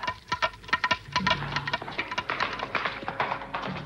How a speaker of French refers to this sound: Écoutez, écoutez, c'est un galop de cheval.